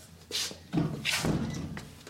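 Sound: knocking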